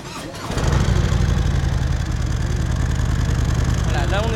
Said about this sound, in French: Allez, donc d'abord on va démarrer la moto. Là, on a quoi comme moto Alors là, c'est un Softail Héritage S, donc avec un moteur en 114, euh, avec simplement des silencieux. Il n'y a pas de ligne complète sur cette moto.